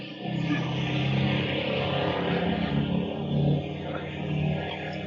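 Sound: airplane taking off overhead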